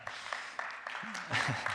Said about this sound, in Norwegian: Dere må ikke klappe for meg, men hvis dere klapper, så må dere gjøre det skikkelig. Det der var sånn halvveis. Dere får et forsøk til.